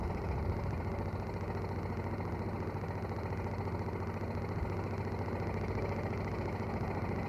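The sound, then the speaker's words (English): A steady, low car engine idles continuously in slow-moving traffic with a constant rumble and slight vibration, moderately loud, with no speech over it. “we are making a certain amount of progress, but the traffic has begun to move again.”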